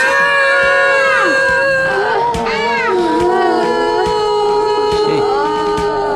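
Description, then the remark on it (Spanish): Several women scream and wail at once, their loud, drawn-out cries overlapping and rising and falling in pitch without a break for the whole stretch. “¿Y ese ruido? Son gritos de mujeres.”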